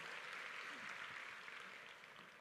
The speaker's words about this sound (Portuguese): Dê mais um aplauso a Jesus e tome o seu assento.